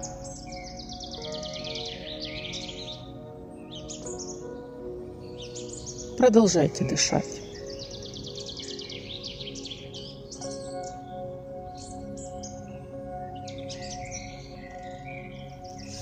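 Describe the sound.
Pine forest ambience filled with steady, high-pitched birdsong, chirps and trills continuing throughout over a soft background hum, while a voice briefly speaks a few words midway.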